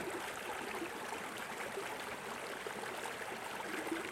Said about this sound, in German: Hörst du, wie die Brunnen rauschen? Stille, stille, lasst uns lauschen.